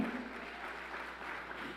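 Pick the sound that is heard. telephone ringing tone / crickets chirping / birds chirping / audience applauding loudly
audience applauding loudly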